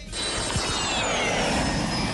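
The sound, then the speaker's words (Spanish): Someone imitates a small airplane with their voice, a steady, breathy engine drone held for about two seconds with a faint whining pitch that slowly falls. It is fairly loud, with no talking. “Eso es como una avioneta.”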